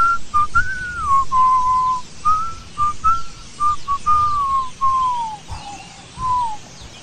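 A lone, slow whistled melody, clear and close, with sustained notes gliding gently up and down in a drawn-out, mournful tune. No one speaks.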